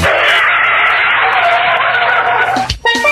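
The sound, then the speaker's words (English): Loud, dense traffic noise with a steady roar of car engines and tires, broken near the end by a short burst of honking car horns. “let's not forget long hours in traffic just to spend quality time with your family.”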